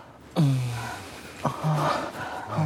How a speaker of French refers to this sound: C'est une explosion d'énergie qui s'accompagne d'une explosion sonore. On expire sauvagement en décontractant tout d'un coup tous les muscles qui ont été mobilisés pendant le coït.